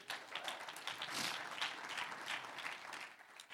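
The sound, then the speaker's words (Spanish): A crowd applauds God ("the one who lives") steadily, many hands clapping in a dense, crackling wash that holds at an even, moderate loudness for several seconds without any voices over it. “Un aplauso al que vive.”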